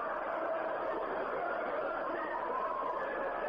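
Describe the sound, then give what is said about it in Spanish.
A dense, unbroken wash of many distant screaming and wailing voices blends into one eerie, steady roar, holding the same level throughout with no pauses and no clear speech. “existe un registro de audio supuestamente fue grabado por los científicos durante la perforación, en el que se escuchan los gritos de las que serían las almas torturadas en el infierno.”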